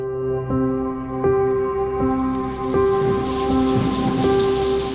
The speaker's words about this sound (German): Es blitzt, donnert und regnet.